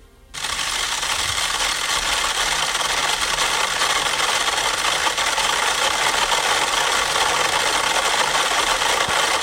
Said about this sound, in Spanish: Y entonces tenía un aparato, eso sí, que los conectaba todo a la vez. Y de pronto entonces vamos a escuchar, fíjate cómo empiezan a sonar 100 metrónomos a la vez.